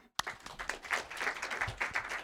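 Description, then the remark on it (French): A crowd of people breaks into applause, a dense, steady patter of many hands clapping together, starting abruptly and continuing without any talking. “On t'applaudit.”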